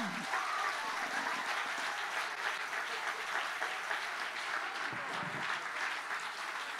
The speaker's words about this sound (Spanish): Y al que no le guste, si le va a dar un aplauso,